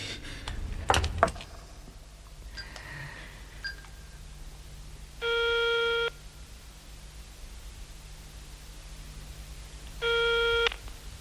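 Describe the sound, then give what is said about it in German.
A mobile phone call's ringback tone sounds twice, each a steady electronic buzz lasting about a second with a long pause between, heard after a brief clatter of handling noise at the start. “Geben Sie mir das Handy.”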